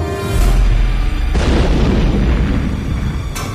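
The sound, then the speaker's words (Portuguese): A loud grenade explosion near a car booms with a deep low rumble, followed by a second sharp blast and debris-like crackling that sustains for several seconds, forceful with no voices. “Eles olham o negócio explodindo”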